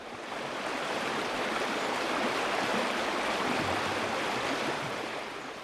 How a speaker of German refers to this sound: Schon bald hörte er den Fluss Styx rauschen, der die Welt der Lebenden von der Unterwelt trennt.